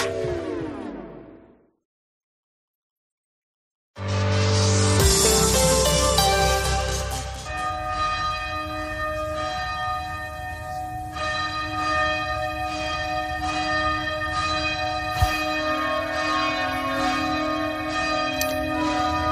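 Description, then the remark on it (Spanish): Church bells peal loudly and continuously, overlapping strikes blending into a rich ringing wash, after an earlier bell tone fades into a short silence. No voices are heard. “Durante siglos, el repique de campanas venía a ser lo que hoy es la radio, la prensa o incluso el WhatsApp, ¿no?”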